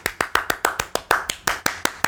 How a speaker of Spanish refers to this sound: Eh, aplausos